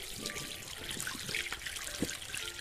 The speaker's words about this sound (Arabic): في الحمام غسلت وجهي